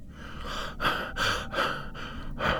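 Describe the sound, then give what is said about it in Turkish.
A voice imitates the rapid, labored breathing of a dying man: a series of about five or six harsh, gasping breaths in a quick, steady rhythm, fairly loud, with no speech. “Sık sık solumaya başladı.”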